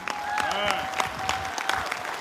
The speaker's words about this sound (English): So, without further ado, I would like for everyone to stand up, yeah. show honor where honor is due, give a round of applause to our pastor, Hallelujah.